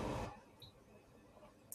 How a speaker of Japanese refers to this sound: で、今、えハサミをですね、スマートレターに入れてですね、はい。えー、ミントさんからのギフトをですね、えー、取り出しました。